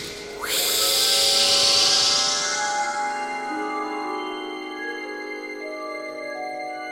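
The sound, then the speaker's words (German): A loud, breathy hiss, the ghost Baroness Jaspara von Dusterberg departing the spirit world, bursts in and fades slowly over several seconds, layered with eerie sustained tones that drift and shimmer, giving a ghostly, airy quality with no voices. “Die Baronin verabschiedete sich mit einem Zischen aus der Geisterwelt.”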